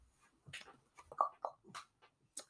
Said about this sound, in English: My dog is just making some noise.